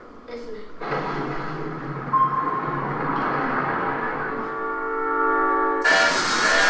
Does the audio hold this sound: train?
yes